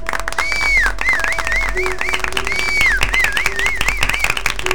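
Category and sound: crowd, crowd applause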